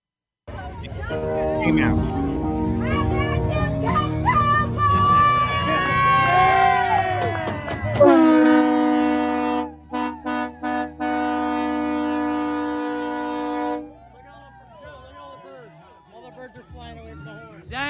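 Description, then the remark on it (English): The Capco celebration horn at a drag race, after a win by Steve Torrence, blasts one long, steady, brassy note for several seconds with a few brief stutters, following excited crowd cheering and voices; people talk again once it stops. “dang, I missed that horn.”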